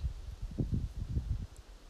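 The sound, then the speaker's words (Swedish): Soft outdoor wind rustling through leaves on a sunny day in nature, with low, uneven gusts swelling and fading over a quiet background. One tiny, faint bird chirp pokes through near the end, and no one speaks. “En solig dag i naturen med vind och enstaka fågelljud”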